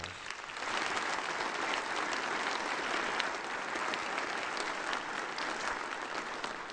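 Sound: applause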